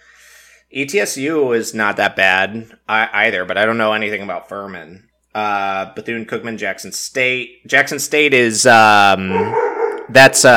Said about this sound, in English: uh, so, excuse my dog for going nuts in the background.